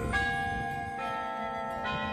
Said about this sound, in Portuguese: Obrigado, Deus, Pai Celestial, dono de tudo, quando bate o sino da Catedral de Nossa Senhora de Aparecida